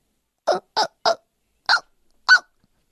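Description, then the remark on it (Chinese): Five short, sharp hiccups with nothing else around them: three in quick succession, then two more after slightly longer pauses, each a brief voiced gulp. “他还是不停的打嗝。”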